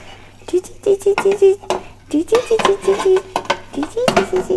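Dishes and drinking cups being washed: irregular clinks and clatters of crockery knocking together in quick bursts, with a low steady hum in the background.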